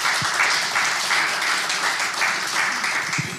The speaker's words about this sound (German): Applaus